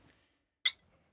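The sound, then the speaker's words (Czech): A single bright clink of glasses of Japanese gin touching in a toast, sharp, ringing briefly before fading into quiet. “Takže na zdraví.”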